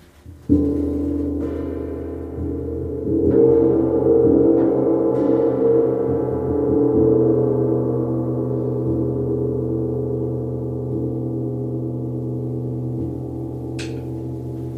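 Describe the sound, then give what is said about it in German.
A portable singing bowl, a travel gong, rings out with a deep, sustained resonant hum that swells as it is rubbed, then hangs in a long, steady drone that slowly fades. No voices. “Die hat dann immer ähm, die Klangschale geklangt. Das ist der Gong für unterwegs”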